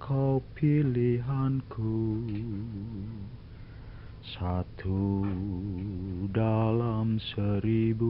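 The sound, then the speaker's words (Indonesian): A man sings a slow, sustained melody with a wavering vibrato, sounding muffled and thin like an old home recording, his voice steady throughout. “menyanyi karena dia suka nyanyi kayaknya waktu muda gitu ya.”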